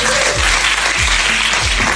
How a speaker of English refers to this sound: So thank you guys for, for coming out tonight. Give them a round of applause as they go to their seats.